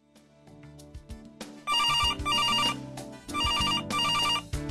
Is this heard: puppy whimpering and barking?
no